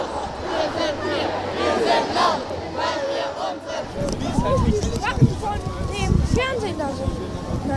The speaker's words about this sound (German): ich bin hier gerade auf der Demo am 1.3. Es geht hier schon richtig ab. Es sind super viele Schüler und Studenten und es geht auch schon langsam los.